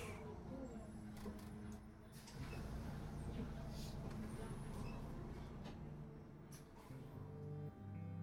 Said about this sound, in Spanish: Llegó a la parada y luego de unos minutos subió al autobús.